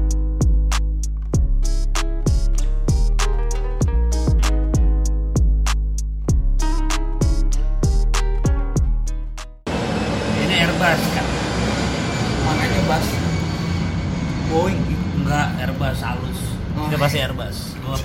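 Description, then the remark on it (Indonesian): An Airbus airliner passes overhead with a broad, steady roar and faint whining tones, starting abruptly about halfway through after a short run of punchy music beats. “Ini Airbus. Kan?”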